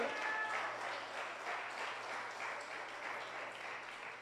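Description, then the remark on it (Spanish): A church audience applauds the Lord loudly and steadily, dense clapping without a break, with a faint low hum and scattered voices mixed underneath. “Denle un aplauso fuerte al Señor.”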